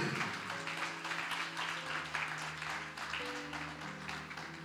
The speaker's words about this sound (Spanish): Santo es el Señor, alaba la gloria de Dios. Denle el aplauso a Cristo.